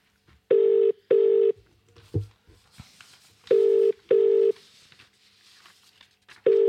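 A phone call ringing out: two double-burst rings, each pair of short, steady mid-pitched tones repeating after a pause, loud and clear over faint rustling and background noise, with no talking.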